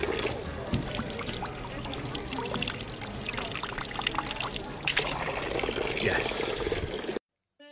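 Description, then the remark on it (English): Steady trickle of water splashing from a public drinking fountain in Bolzano, Italy, continuous, with faint outdoor bustle behind it before it cuts off abruptly near the end. “Because if they have a fountain like this, the water is better than any bottle you can buy.”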